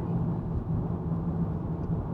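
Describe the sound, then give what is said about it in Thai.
Steady low rumble of road noise inside a moving car driving back from Pak Chong to Bangkok, Thailand, a continuous droning hum with a faint tonal whine, constant and fairly loud with no talking. “เออที่บันทึกอยู่ตอนนี้เสียงอาจจะมีเสียงรบกวนเข้ามาบ้างนะครับ เพราะว่าเรากำลังเดินทางกลับนะครับ ขับรถกลับจากปากช่องกลับกรุงเทพนะครับ ก็เลยบันทึกพอดคาสต์ระหว่างเดินทาง”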